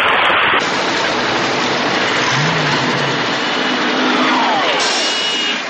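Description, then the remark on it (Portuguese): A steady, loud wash of heavy storm rain fills the scene while the engine of a DeLorean car hums low underneath, with a few faint sliding tones and no talking. “Quando eles chegam de DeLorean, aí pousa... Tá tendo temporal.”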